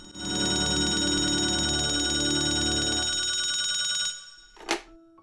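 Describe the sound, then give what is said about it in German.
An old-style telephone bell rings continuously for about four seconds in a loud, metallic, jangling trill, then falls silent and a brief clunk follows as the receiver is picked up. “Ich freue mich unendlich, dass du wieder abgenommen hast”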